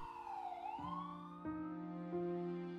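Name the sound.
ambulance siren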